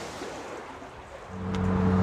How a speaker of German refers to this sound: Also das ganze Wasser kommt dann quasi unter unsere Füße daher. Wenn es extrem stark regnen sollte, ist da drunter das Mischwasserspeicherbecken, wo das Wasser einfach drüber rennen kann.